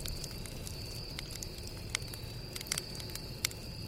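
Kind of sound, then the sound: sound effect, campfire crackling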